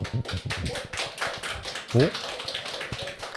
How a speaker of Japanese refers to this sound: でも、あの、面白かった方を強く拍手してあげてください。はい。じゃあ、先行のお二郎が面白いと思った方、拍手お願いします。